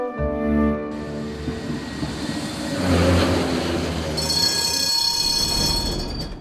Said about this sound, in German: Mit der Straßenbahn.